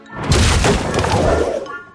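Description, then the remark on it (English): A loud crash as a wooden crate dropped by Cranky on the dockside bursts open: a heavy thud followed by a burst of clattering, splintering noise that rattles on for over a second before fading. “He dropped the crate he was carrying and it burst open.”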